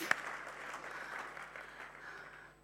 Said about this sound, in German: Ein Applaus.